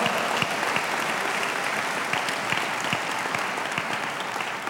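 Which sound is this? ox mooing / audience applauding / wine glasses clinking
audience applauding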